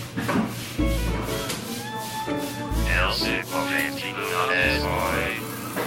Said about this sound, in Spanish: De fondo suena la cafetera, como de costumbre.